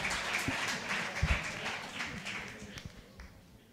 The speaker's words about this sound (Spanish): Ahora un aplauso, joder, que no...